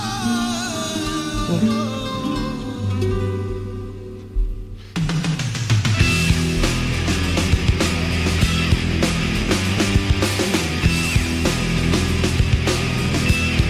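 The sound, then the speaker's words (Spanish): A flamenco record with a loud, 80s-style rock sound that opens with a sustained, droning intro before full rock instrumentation crashes in around five seconds, with driving drums and dense guitars. “No, no, suena como rock de los ahí años 80.”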